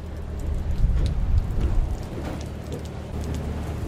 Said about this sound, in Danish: Nu regner det altså. Jeg er så glad for, at jeg ikke lige hænger op i den der mast i det her regnvejr lige nu.